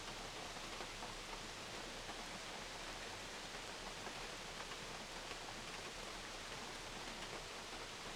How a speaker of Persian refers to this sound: برای یک دقیقه فقط به تماشای این آبشار و پایین اومدن آب دقت بکنید